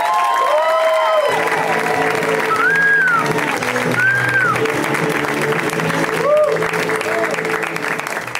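A crowd applauds as a performer is introduced, steady clapping with scattered cheers and whoops rising over it, a dense, loud wash of hands that holds for several seconds before easing slightly at the end.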